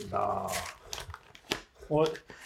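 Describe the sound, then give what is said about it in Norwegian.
Several short rasping bursts of paper being torn open as an envelope holding the answer key, taped three times, gives way in jerks, with people talking and vocalizing over it. “Da spretter jeg fasiten, jeg.”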